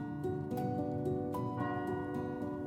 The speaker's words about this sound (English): The clock has just struck nine.